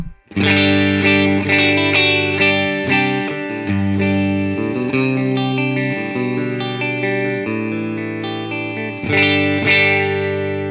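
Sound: electric guitar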